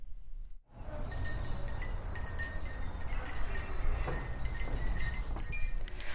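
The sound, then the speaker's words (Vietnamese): Fist-sized ceramic wind bells, hung in strips along a cross-shaped corridor at Tù Dê Đang, tinkle in a continuous scatter of light, high chimes, fairly soft and overlapping, over a steady wash of outdoor background noise with no talking. “Không chỉ no mắt khi ngắm đủ các sắc màu, khi bước qua hành lang hình chữ thập trong Tù Dê Đang, du khách còn no tai với tiếng chuông lanh lảnh phát ra từ những quả chuông gốm, bé bằng nắm tay được treo lên thành từng dải”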